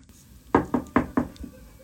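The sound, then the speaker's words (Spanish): Knocking on the front door of Steve Jobs' house: four firm, evenly spaced raps in quick succession followed by a softer fifth, on their own with no talking. “No sé cuál es la época ni nada, pero quisiera llegar exactamente al frente de su casa y tocar en la puerta.”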